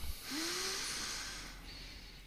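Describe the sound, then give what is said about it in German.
A single long, deep inhalation, a broad airy hiss lasting about two seconds, with no talking. “Ich finde das ein schöner Moment, um mal tief einzuatmen.”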